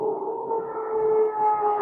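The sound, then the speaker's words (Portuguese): A neighbor's power drill in the next apartment whirs through the wall, a steady muffled motor whine with a droning mid-pitched hum that holds without a break for the whole moment, no voices present. “Bom, só porque eu comecei a gravar, o vizinho começou a usar uma furadeira aqui no apartamento do lado.”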